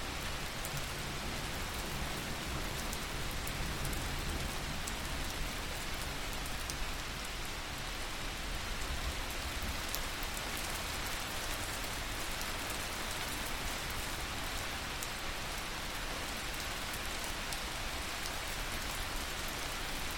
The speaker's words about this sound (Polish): Wsłuchując się jeszcze przez chwilę w dźwięki deszczu, weź wolny, cichy wdech i wypuszczając powietrze, powoli otwórz oczy.